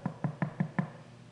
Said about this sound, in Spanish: se va corriendo para la casa del hermanito, ¿verdad? perdón, del pastor, y viene y toca la puerta.